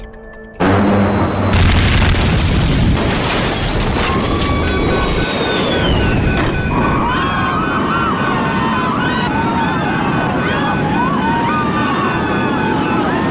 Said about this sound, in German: Ein Teil des Rumpfes riss ab und verursachte eine explosive Dekompression des Flugzeugs. Ein etwa sechs Meter langes Rumpfteil fehlte jetzt. Kabinendach und Seitenwände waren plötzlich verschwunden.